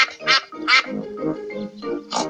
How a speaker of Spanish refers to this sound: ¡Mirad! ¡Hay un estanque con patos!